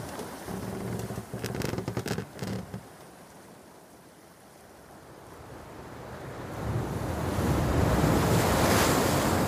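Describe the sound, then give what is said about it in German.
Choppy sea waves churn and slosh steadily, with gusty wind buffeting the microphone; the surf swells louder toward the end, no voices present. “Etwas weiter östlich rudern fünf Boote im Konvoi durch die kabbelige See.”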